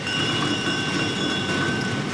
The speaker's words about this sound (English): The pine nuts are separated from the cones, and then in a small processing plant, they're fed through a series of machines that crack the hard shells and separate them from the white pine nuts that come pouring out into baskets.